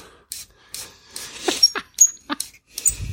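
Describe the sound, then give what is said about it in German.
Shrill, whining squeaks from an unoiled Screwpull corkscrew being worked on a cork, several short uneven bursts, some sliding downward in pitch, ending with a low rubbing creak. “Wenigstens quietscht, quietscht der.”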